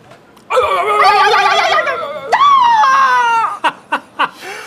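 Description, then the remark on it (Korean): A voice imitates the anguished screams of patients in pain inside a hospital treatment room, as heard from the waiting room: two long, wavering wails, the second higher and sliding down, followed by several short sharp yelps, loud. “아니 얼마나 아프면 환자들이 저렇게 소리들을 지를까?”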